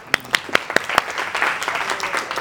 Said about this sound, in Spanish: ok, dale fuerte aplauso